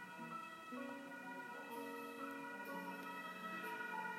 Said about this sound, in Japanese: 今聞こえたかなあのドイツの救急車救急車かなパトカーかなこういう音なんですよね面白いよね